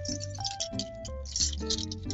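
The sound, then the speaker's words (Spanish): Keys rattle and clink in short, bright bursts while someone rummages for them while opening a door, jingling unevenly for about two seconds over a steady musical backing, with no one speaking. “déjenme que busco llaves, barbijo, porque claramente estamos en épocas de coronavirus y hay que tomar las precauciones necesarias.”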